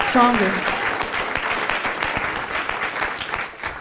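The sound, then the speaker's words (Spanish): A church audience claps loudly and steadily in praise to the King of Kings, dense overlapping applause filling the space, with a brief voice or shout near the start and the clapping thinning slightly toward the end. “Dele ese fuerte aplauso al Rey de Reyes.”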